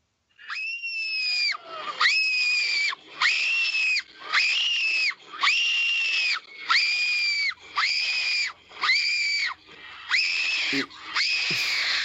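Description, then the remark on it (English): A voice lets out high-pitched screams, about ten shrill, sustained bursts in a steady rhythm with brief gaps between them, loud, as wrestler Kelly Kelly came out to the ring. “I could give you the actual footage of me of my screaming like a little girl?”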